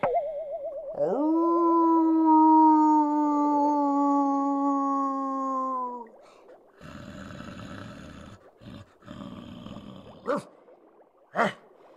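A wolf howls once, a long sustained mid-pitched cry that wavers at the start and then holds steady for several seconds, followed by rougher noise and two brief sharp bursts.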